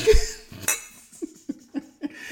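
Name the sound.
glasses clinking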